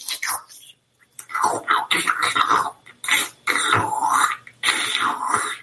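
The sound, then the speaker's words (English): A person makes wet, slurping mouth noises imitating a neutered dog licking its genitals: a series of breathy bursts with short pauses between them, and no words spoken. “my dog, who sits in the room with me, was licking his balls.”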